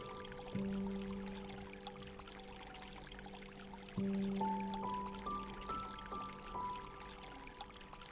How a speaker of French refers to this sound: Laissez-vous emmener par le bruit de l'eau.